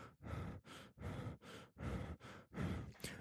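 Rapid, shallow breathing through the mouth, about eight quick airy breaths in a steady panting rhythm, fairly loud, with no talking.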